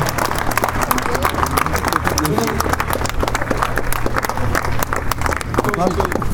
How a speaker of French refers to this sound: Mesdames, Messieurs, merci d'applaudir l'équipe nationale de rugby du Burkina Faso.